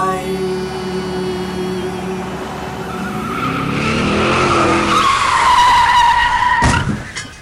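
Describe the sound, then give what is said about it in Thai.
A car engine revs and rises into a loud, shrill tire screech lasting a couple of seconds, cut off by a sudden sharp crash of impact, then quiet: a car driven by a monkey hitting an old monkey walking beneath a pedestrian overpass. No one speaks. “ลิงปูโดนรถชนโอ้ยในเรื่องเนี่ยนะครับลิงแก่เนี่ยไม่สามารถมีแรงที่จะขึ้นสะพานลอยได้ ก็เลยเดินด้านล่างของสะพานลอยซะเลย อืมลิงอีกตัวก็ขับรถมาถึง ก็เลยชนซะ”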